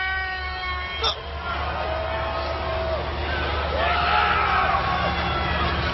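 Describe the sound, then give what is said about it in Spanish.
A large wrestling arena crowd at a pay-per-view event roars continuously, a dense wash of voices with long, drawn-out booing tones at the Undertaker rising and falling over it, and a brief sharp shout or bang about a second in. “Claro, y el público decía, abucheo a Taker porque ha hecho un turgil, le aplaudo por matar a alguien en antena.”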